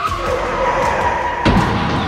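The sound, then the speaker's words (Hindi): A car's tyres screech in a long, steady skid, then a sudden heavy crash hits about three-quarters of the way through, loud, with the noise ringing on briefly afterward; the car was carrying three people, and all three were killed in the accident. “माँ पापा और निकिता तीनों उस एक्सीडेंट में मारे गए”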